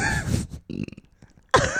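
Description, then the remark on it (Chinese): A loud, rough burp rumbles out, followed by a shorter croaking gurgle, a brief pause, then another harsh burst of belching. No one speaks. “我怎么会接在那个地方打嗝？”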